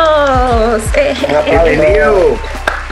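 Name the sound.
audience applause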